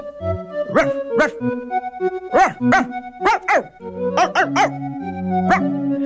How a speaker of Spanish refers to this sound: Un día después, un perro llegó ladrando, asustó al gato y gritó.